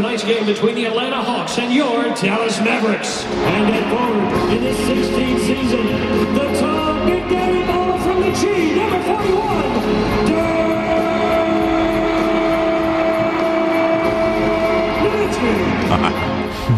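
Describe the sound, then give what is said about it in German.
An arena announcer's amplified voice shouts at full volume over a dense, roaring crowd cheering frenetically at a Dallas Mavericks game in the American Airlines Center in Dallas, an arena holding 20,000 spectators. The noise is sustained and loud throughout. “Sie jubelten richtig frenetisch und der Stadionsprecher schreit so laut er kann, hör mal.”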